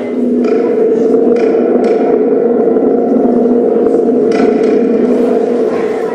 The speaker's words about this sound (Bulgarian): Ами, това се казва спринг дръм или също някой му казват лъвски рев. Нали чухте как звучи? Виж, то представлява куп барабан с пружинка вътре и имитира буря или вятър.